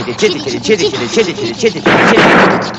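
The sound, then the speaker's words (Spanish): An old car engine sputters and chugs in a quick, uneven rhythm, then breaks into a loud, sustained burst of backfiring bangs. “¿Qué ruido tan raro hace? Es que habla. Todos los motores hablan.”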